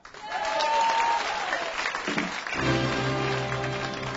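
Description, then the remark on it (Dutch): Enthusiastic applause from a crowd, a dense steady clatter of many hands clapping loudly, joined partway through by a sustained low tone underneath. “Een enorm applaus kreeg trouwens.”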